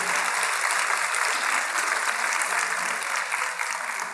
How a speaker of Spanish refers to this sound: Dele ese aplauso grande al Señor. Solo Él lo merece.